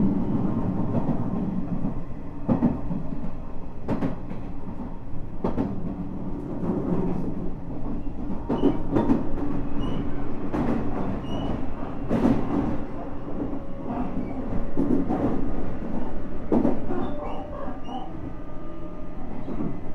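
A Nishitetsu 9000 series electric train, an express bound for Hanabatake, runs steadily from Kasugabaru toward Futsukaichi, with a continuous low rumble, periodic sharp clacks from the wheels over rail joints, and a faint high whine rising and holding in the background.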